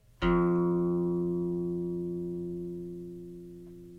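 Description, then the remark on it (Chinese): A single plucked open string (an open-string sanyin note) rings out with a sharp attack, then sustains a steady, harmonically rich low tone that fades slowly over about four seconds, with no voices. It is played so listeners can count how long the tone stays audible. “所以我们现在先用空弦散音这个音来来听一下。我弹这个空弦音，我们听，你们可以开始去算，你用一二三四开始慢慢算哈。”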